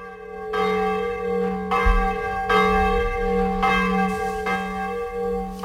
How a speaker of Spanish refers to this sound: Las campanas al amanecer. La UNESCO ha incluido el toque manual de campanas, no del botoncito, de las campanas de Utrera como patrimonio cultural y material de la humanidad.